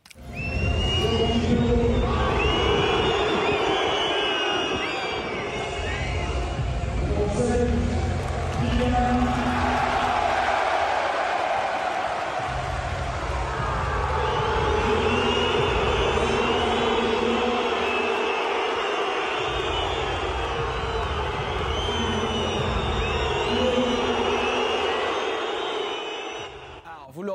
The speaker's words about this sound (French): les deux derniers noms qui sont sifflés, c'est ceux de Neymar et de euh, Léo Messi, euh, des sifflets qui ont même couvert le speaker du, Parc des Princes.